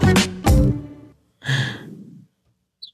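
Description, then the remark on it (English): Two quick swallowing gulps of water, followed by a loud breathy exhale like a satisfied sigh, then silence apart from a faint click at the end. “Big gulp of water, wrong yeah.”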